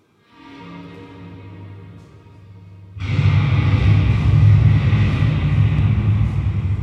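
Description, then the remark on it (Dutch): A low droning hum gives way to a sudden, loud rolling thunder effect, a deep bass-heavy rumble that swells and sustains for several seconds, played through powerful subwoofers. “De vrouw in het vuur is ondertussen verdwenen, maar daar is de donder.”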